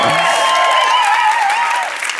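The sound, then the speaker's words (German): An audience applauds steadily and loudly for about two seconds, a dense wash of clapping with a sustained, wavering cheer riding on top before it eases off slightly. “Ja, danke, ist dein Applaus.”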